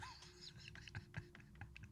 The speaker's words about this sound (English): I'm sitting here right now at my table typing this text